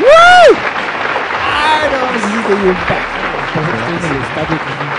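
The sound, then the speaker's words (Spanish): A short rising tone sounds at the start, then a steady wash of crowd applause for a comedian continues to the end, fairly loud and full, with some voices mixed into the clapping. “¿Quieres aplausos también?”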